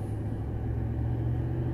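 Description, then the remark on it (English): Car traffic idling at a red light: a steady, low engine rumble with a faint droning hum, holding at an even level throughout with no voices. “I'll go faster than you when you accelerate from a, from a red light when it turns green.”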